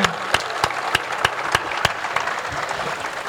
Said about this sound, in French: les, bénévoles euh, qui se mobilisent à terre et que j'aimerais remercier, ceux qui sont là ce soir, je pense qu'ils méritent qu'on les applaudisse, tout comme les équipes qui sont actuellement à bord de l'Ocean Viking.